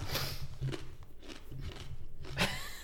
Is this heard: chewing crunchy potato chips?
yes